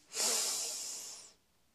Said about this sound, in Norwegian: Og enda en gang, pust godt inn.